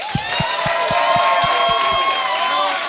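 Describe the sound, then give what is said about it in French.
A live show audience applauds and cheers loudly and steadily to welcome Jean-Thomas Jobin, with whoops and shouts riding over dense clapping and a regular beat of low thumps, like rhythmic stomping or clapping. “J'aimerais ça qu'on donne une bonne main d'applaudissement à mon ami, le gars qui a eu l'idée de partir le Patreon.”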